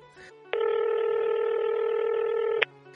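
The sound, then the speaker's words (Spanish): A loud, steady electronic telephone tone sounds once for about two seconds, buzzy and unbroken, with no talking around it. “Tú también pon atención a tu teléfono, porque la llamada está por llegar.”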